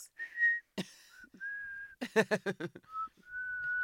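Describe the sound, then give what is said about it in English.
A short whistled signal tune, a "pint whistle" calling people out for pints: a few steady held notes, a quick cluster of choppy rising notes in the middle, then another long sustained note, whistled clear with no talking. “You did not put out the pint whistle on a school night.”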